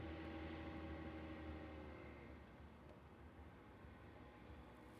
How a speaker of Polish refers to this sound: Oj, teraz chyba widzę, że to nie helikopter, bo helikoptery tutaj też latają, ale jakaś głośna motorówka.